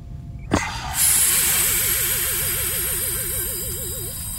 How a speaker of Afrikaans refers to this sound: Ek ontgrendel die kapsule. Ek ontsluit die kapsule.